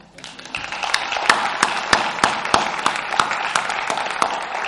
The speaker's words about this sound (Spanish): O sea que doy ese aplauso a mi madre, que para eso me parió, y a mi padre que me engendró, ¿eh? por favor.